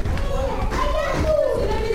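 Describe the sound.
Ukrainian children who are being looked after clatter up a staircase, their high voices chattering and calling over a steady patter of thudding footsteps that continues throughout.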